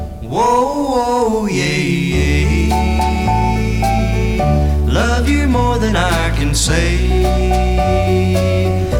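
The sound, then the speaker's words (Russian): The original recording of a slow 1950s rock and roll ballad plays loud, with a steady stepping bass line under sustained melodic lead lines and bright chords that keep going without a break. “Сегодня у нас неоконченная рок-н-ролльная баллада, ставшая мировым хитом лишь через 20 лет после выхода первой версии”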